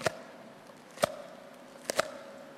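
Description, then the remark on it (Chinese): Foley of a cleaver chopping into a winter melon: four sharp, crisp thwacks, two spaced about a second apart, then a quick closing pair, with quiet hiss between. “加上一个菜刀的声音，这时候我比方我这咔嚓一下，大家注意听啊。这个呢，是我这个冬瓜切开，大家都知道一个大冬瓜它切开都有糖声。”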